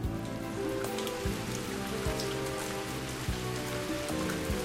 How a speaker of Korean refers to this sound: 지금 또 비가 오네요. 당신이 내려주는 비인가요?